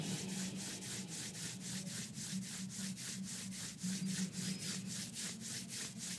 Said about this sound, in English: Let's bring our hands in front of our heart center. And then rub the palms gently into each other.